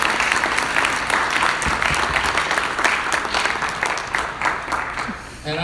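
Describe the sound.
Sustained applause from an audience welcoming a speaker, a dense wash of many hands clapping at steady loudness that tapers slightly near the end, with faint voices mixed in.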